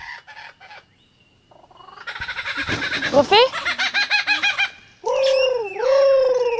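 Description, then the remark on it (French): A superb lyrebird in the shade of eucalyptus trees pours out a loud, rapid medley of calls mimicking other birds: harsh rattling bursts, quick repeated chirps, then sweeping whistled phrases, each section sounding like a different species. “Il possède la faculté d'imiter le chant des autres oiseaux ou divers sons entendus.”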